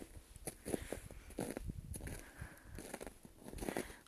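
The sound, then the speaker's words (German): Steady footsteps crunch through snow in a forest, each step a soft, gritty squeak-crunch at an even walking pace, quiet, with a hushed outdoor background and no voices. “was ihr im Hintergrund hört, sind meine Schritte im Schnee meine Schritte im Wald.”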